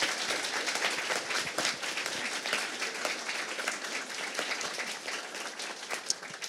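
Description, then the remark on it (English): A crowd applauds steadily, dense overlapping claps forming a continuous wash of sound that holds at an even, moderately loud level throughout without any voices. “So everyone who loves my books can give this lady a round of applause.”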